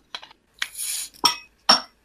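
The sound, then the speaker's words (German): Glasses clink together in a toast to a friend: two sharp, bright chimes ring out, following a brief clatter and a soft rushing sound, with no talking. “So, wir stoßen an auf dich, Bro.”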